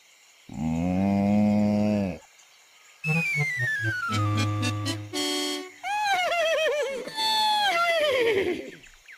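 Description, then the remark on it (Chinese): A dairy cow lets out one long, low, droning moo lasting about a second and a half, followed by a run of other tonal sounds, some high and gliding, some rising and falling. “乳牛会发出什么声音呢？”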